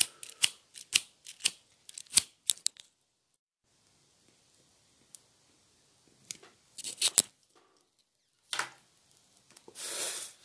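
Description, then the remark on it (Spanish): Sharp clicks and rattling of someone rummaging through small objects looking for a favorite lighter, then a pause, more quick clicks, and short breathy hisses like the lighter being struck to light a joint. No one speaks. “No encuentro mi encendedor favorito.”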